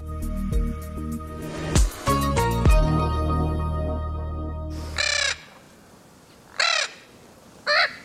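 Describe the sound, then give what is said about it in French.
Three harsh, raspy screeches of a Spix's macaw, a large blue parrot from Brazil, ring out one after another, loud, following a few seconds of tonal music that fades away. “Vous entendez le cri de Lara de Spix, un grand perroquet bleu qui vient du Brésil.”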